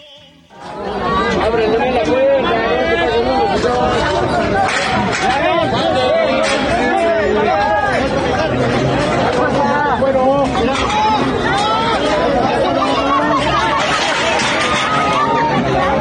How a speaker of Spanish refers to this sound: vamos a escuchar un ad sound, un, sonidito ahí de lo que estaba pasando en este portazo ahí en las taquillas del, del Estadio Azteca